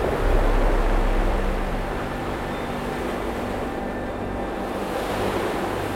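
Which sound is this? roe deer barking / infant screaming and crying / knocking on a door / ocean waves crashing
ocean waves crashing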